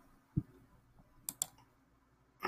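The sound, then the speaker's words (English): A few scattered key clicks from a computer keyboard, irregular and sparse, with a soft thump early on and a short burst of clacks at the end, otherwise quiet. “I was typing and I was dazed out for a minute there.”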